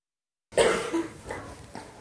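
A child with a cough that has lasted two weeks coughs in a quick series of harsh bursts after a moment of silence, the coughs tapering into raspy, breathy hacks.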